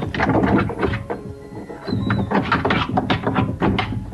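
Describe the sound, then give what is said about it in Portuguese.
A person mimics a dog scratching at the back door of a house with their voice, producing rapid rasping scrapes in uneven bursts with a brief squeaky whine partway through. “Tipo o cachorro arranhando a porta.”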